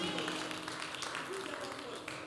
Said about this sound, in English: Can you clap for him, please?